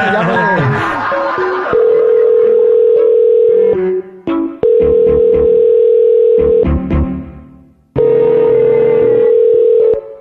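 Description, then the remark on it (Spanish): A steady, loud telephone dial tone after a phone call was disconnected hums in three long stretches, broken by short gaps, with a brief burst of speech-like noise at the start and muffled rumbling beneath the tone. “Señora, creo que se desconectó la llamada.”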